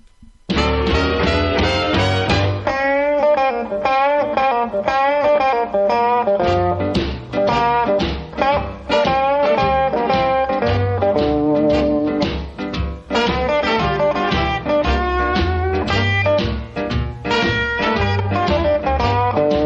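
A blues recording plays, an instrumental stretch with full band and bright horn-like lines over a steady, driving beat, loud and continuous throughout, with no vocals yet.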